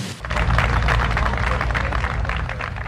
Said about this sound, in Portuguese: Era muita gente, eram muitas palmas.